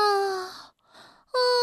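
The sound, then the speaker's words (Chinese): A voice imitates a big, drawn-out yawn by the story character Bengbeng, a loud, sustained tone that slowly sinks in pitch, a brief breathy pause, then a short loud vocal return at the end. “蹦蹦打了一个大大的哈欠。”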